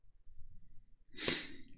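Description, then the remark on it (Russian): One short sneeze during a livestream bursts out of a quiet, low background hum, a sudden hissy, breathy blast that fades within half a second. No one speaks. “Третий стрим чихаешь, будь здоров.”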